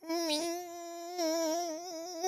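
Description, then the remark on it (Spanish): A single voice holds a steady, high, nasal tone for a couple of seconds, wavering slightly in pitch, imitating a ringing in the ears. It is fairly loud, with no other sounds. “Pero te satura, o sea, llega el momento donde estás así y a lo mejor ya nomás escuchas el ruidito en tu oído así de...”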